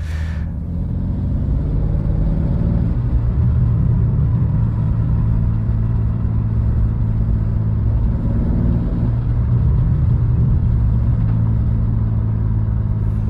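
A BMW M2 sports car engine burbles steadily, a deep, loud low-frequency rumble with slight rhythmic pulsing, continuous and without any speech throughout.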